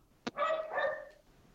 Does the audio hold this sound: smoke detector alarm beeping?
no